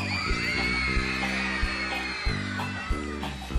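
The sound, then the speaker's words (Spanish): A large crowd screams and yells together in one loud, sustained roar that holds steady for several seconds, with a low droning hum running underneath. “Pero quiere escuchar un grito cuando les diga que ahí viene su papá con el cinturón.”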